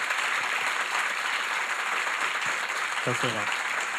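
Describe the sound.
A steady round of applause from many hands, dense and even throughout, with a brief voice breaking through near the end.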